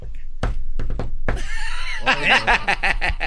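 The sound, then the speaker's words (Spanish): A quick patterned knock on a door, four sharp raps with uneven spacing like a special rhythm, followed by voices and bursts of laughter. “Yo y que toca la puerta. ¿Eh? O sea, hay, un toquido especial.”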